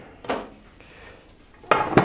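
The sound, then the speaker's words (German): Frying pans knock and clatter against each other in a few sharp bursts as they are being packed in and no longer fit, with a brief jumble early on and two louder clanks near the end. “Ah, jetzt passen die Pfannen nicht mehr rein. Vorher hat es doch geklappt.”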